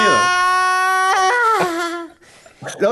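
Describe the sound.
A man lets out a loud, drawn-out moan close to the mic, holding a steady pitch for about two seconds before it sags and fades, followed by a brief bit of speech.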